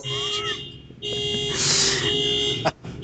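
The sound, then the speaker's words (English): A steady electronic timer alarm tone drones continuously for about three seconds, loud, with a brief hissy burst midway and a sharp click near the end. “The time alarm before it becomes a three-hour episode.”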